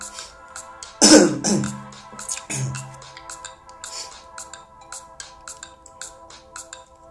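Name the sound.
coughing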